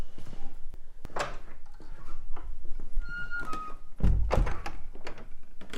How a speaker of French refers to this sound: Elle grince la porte de votre atelier. ah, mais si toutes les portes Grince, en fait. C'est une vieille bâtisse, donc les, les portes grincent, euh, le sol fait du bruit.